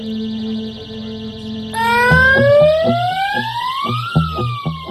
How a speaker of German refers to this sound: Die Katastrophenhelfer im Training geben Alarm, damit die Urlauber auf Kangaroo Island gewarnt sind.